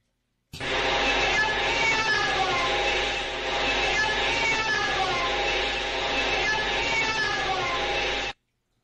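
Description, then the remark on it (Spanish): A hiss-laden ghost-hunting psychophony (EVP) recording, made in an abandoned house during an investigation, plays for about eight seconds: a loud, unbroken, eerie wail with sliding, yowling pitch, like a distorted moaning voice buried in static. “Esta grabación que ustedes están a punto de escuchar la hicieron en una casa abandonada.”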